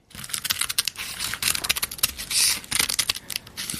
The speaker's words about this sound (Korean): 이게요. 그 마른 김을 가위로 자르는 소리예요. 김 자르는 소리입니다. 가위로.